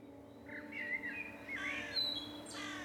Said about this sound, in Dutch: S'avonds terug in de stad maak ik een wandeling in het park. Het is lente de avonden zijn nog fris, maar de vogels zingen als gek.